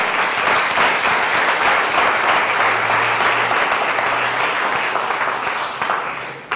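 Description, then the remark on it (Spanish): A large crowd claps steadily and loudly for several seconds, applauding the Lord during a Spanish-language sermon, a dense wash of applause before it begins to thin out at the end. “¿Puede aplaudirle, Señor, con toda gloria?”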